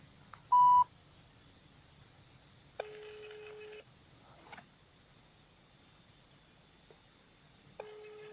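A short sharp beep as a telephone number is dialed, then the phone line ringing out: two steady ring tones about five seconds apart, fairly quiet against a faint background hiss, with no voices.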